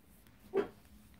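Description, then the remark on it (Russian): A single short dog bark rings out, one brief muffled woof with no talking around it. “Пуся, подойди сюда, бегом, бессовестный пес.”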